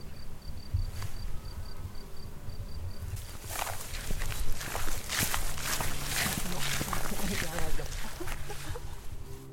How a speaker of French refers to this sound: En plus, tu l'entends que mes chaussures sont trop grandes. Non Tout à l'heure, j'étais en train d'imaginer ça. J'ai dit putain, ça fait un peu de plop, plop, plop.